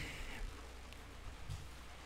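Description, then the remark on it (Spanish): Steady, soft rain falling outside, a continuous faint hiss with low rumble underneath, heard from indoors with no distinct drops. “si escuchan algo, es porque está lloviendo.”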